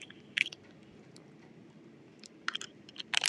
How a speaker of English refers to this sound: And let me drink some water really quick.